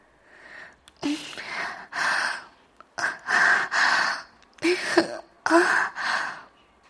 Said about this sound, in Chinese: 那女人喉咙处发出一阵阵娇弱的喘息声，其中还夹杂着咽唾液的声音。